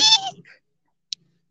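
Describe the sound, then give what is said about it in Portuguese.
A person's voice lets out a brief, shrill, squealing cry, imitating a screaming frog, which fades quickly into silence before a single faint click. “Esse é o som de sapo berrando?”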